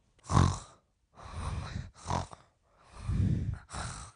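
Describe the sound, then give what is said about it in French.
Five rough, throaty snores from someone sleeping inside a pen-shaped coffin, in quick, uneven succession, each a raspy rumbling burst with brief pauses between, fairly loud with no talking. “À l'intérieur, eh bien, mon suspect ronflait.”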